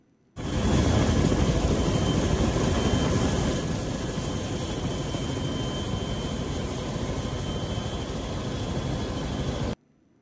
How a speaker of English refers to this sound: this uh, allegedly shows one of the last helicopters, though it can't be the last because whoever's videoing it had to leave too. But this is one of the last helicopters, last choppers leaving the embassy.